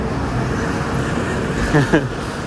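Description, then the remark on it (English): Steady roar of traffic on a main road in Kyoto, Japan, with engine rumble, plus a couple of brief tonal blips from a passing vehicle near the end. “Uh, another main road here.”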